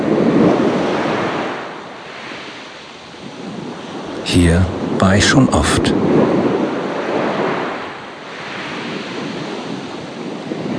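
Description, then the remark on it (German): Steady surf washes onto a sandy beach, the rushing noise swelling and easing in slow, rhythmic waves. A voice speaks briefly in the middle over the ongoing roar of the water. “Das Rauschen der Wellen, die im gleichtönenden Rhythmus an den Strand plätschern das tiefe Blau des Meeres und der weite Blick bis zum Horizont beruhigen mich mehr und mehr.”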